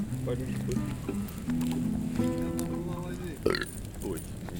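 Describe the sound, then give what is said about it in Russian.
A long, rumbling burp drags on for several seconds with a croaky, low vocal tone that shifts pitch, followed by a brief sharp noise near the end. “Это такое извержение было.”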